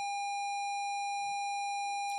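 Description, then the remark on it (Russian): A steady, unbroken electronic tone like a television's lost-signal sound, holding one mid-high pitch with faint overtones for the whole stretch, alone and without any talking. “Когда телевизор, э, сигнал пропадает.”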